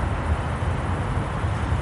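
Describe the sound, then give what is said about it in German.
A steady low rumble of rail traffic from trams and an S-Bahn suburban train passing, with a broad wash of city street noise and no voices. “Das ist eine ganz schöne Atmosphäre hier. Straßenlärm, S-Bahn, Ring, Trams,”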